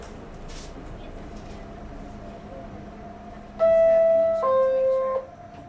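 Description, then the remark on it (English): A Manhattan-bound New York subway train at a Borough Hall station in Brooklyn with a transfer to the F train, next stop High Street–Brooklyn Bridge, hums with a steady low rumble, then a loud two-note descending door chime rings out for about a second and a half before fading. “Cheshire Borough Hall transfer is available for the F train. It's a Manhattan bound seat.”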